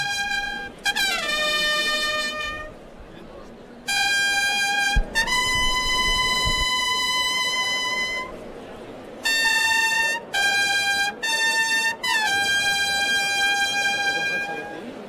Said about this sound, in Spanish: Gracias Alberto, suenan clarines en la maestranza.